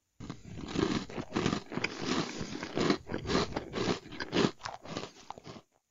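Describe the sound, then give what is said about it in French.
Someone bites into and chews a cake with Corinth raisins, a steady run of moist, crunchy mouth sounds with irregular bursts of chomping, fairly loud and continuous for several seconds with no talking. “C'est en général ce qui se passe quand on mange un gâteau.”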